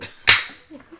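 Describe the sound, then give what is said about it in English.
A beer can cracks open with one sharp, bright snap and a brief fizzing hiss that trails off quickly, followed by a few faint, low murmurs. “Uh, well, actually, since you're cracking a beer, I'll take a drink of my Crack beer it.”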